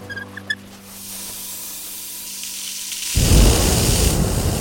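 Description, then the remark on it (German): A homemade gas burner hisses steadily, then bursts into a loud roaring flame about one metre long that keeps blasting without pause, aimed into a hot-air balloon envelope; a few faint tonal clicks sound at the very start. “Die Flamme, die aus dem Brenner schießt, ist einen Meter groß.”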